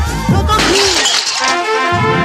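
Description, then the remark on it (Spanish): Glass shatters loudly in the living room of a home, a sharp crash followed by a bright spray of tinkling shards that rings on for about two seconds before trailing off. “Y cuando tu hijo pincha en el salón de tu casa, así.”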